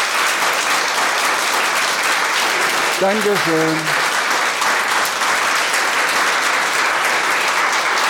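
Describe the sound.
Sustained audience applause after an author's book reading, a dense steady wash of clapping from many hands, with a brief spoken thanks rising over it midway.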